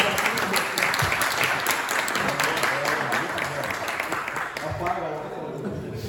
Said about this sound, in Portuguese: Pode sentar, gente boa. Palmas para os corajosos.